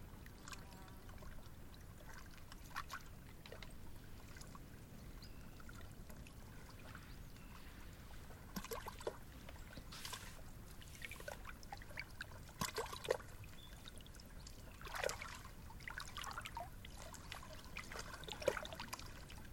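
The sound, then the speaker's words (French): Soft, steady trickling and lapping of water around a boat drifting with the current after paddling stops, with scattered small splashes and drips rising above a low continuous rumble, no voices present. “Et là, lorsqu'on arrête de pagayer, finalement, on se laisse juste porter par le courant.”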